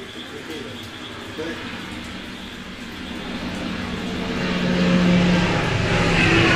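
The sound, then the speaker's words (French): A cargo plane with no passengers makes a low-altitude pass to signal its arrival: a broad engine roar with a droning propeller hum swells steadily louder over a few seconds as the aircraft approaches overhead. “un avion cargo et qu'il n'a pas de passagers, il se permet de faire un passage en, basse altitude pour signaler son arrivée.”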